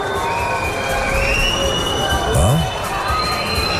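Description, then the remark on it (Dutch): A large outdoor crowd whistles loudly and continuously at a princess standing on a balcony, with several long rising and sliding whistles over a dense roar of cheering and shouting voices. “we allemaal naar Alexia te fluiten”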